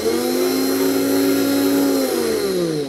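A ball-bearing milling motor on a secondhand milling center with a drill-stand-like holder whirs at high speed with a steady, loud tonal whine and airy hiss, its pitch dipping slightly toward the end as it begins to slow; no one speaks.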